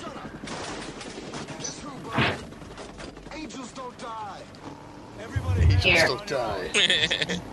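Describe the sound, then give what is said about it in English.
Rapid bursts of film-style gunfire crackle through a busy, loud scene, with shouted voices over the shots and a heavier thumping burst near the end. “I can't hear you over the bullets.”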